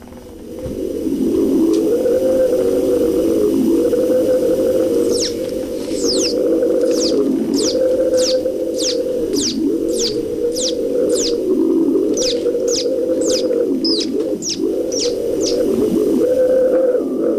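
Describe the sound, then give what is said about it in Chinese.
An instrument imitates wind, from gentle wind to the stormy wind before rain, with a loud, steady, breathy low hum that swells and sags in slow waves, while a rapid series of sharp high chirps sounds over it through the second half. “好，那我们给大家展现一下， OK 话筒递给他，让他来把风声啊带给大家。”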